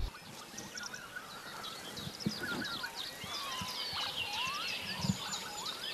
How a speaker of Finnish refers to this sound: No niin, siellä taustalla kuuluu tiltaltti. Tämä chilchalt, chilchalt. Ääni on tiltaltin ja se on yksi niistä linnoista, jotka on saanut nimensä äänen perusteella.